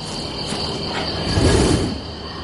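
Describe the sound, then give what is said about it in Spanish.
Crickets chirp loudly at night in a dense, continuous high-pitched trill that never lets up, with a soft low rumble swelling briefly in the middle. No voices are heard. “Los grillos se oían muy alto.”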